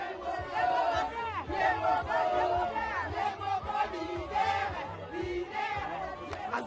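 A group of women cheer and whoop loudly, their high-pitched voices overlapping in a continuous, excited clamor that swells and dips for several seconds.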